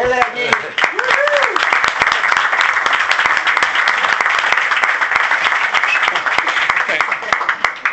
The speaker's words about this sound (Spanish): así que por favor un aplauso.